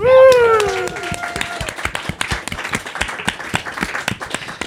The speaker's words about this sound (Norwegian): Eh, stor applaus til dere, slunger!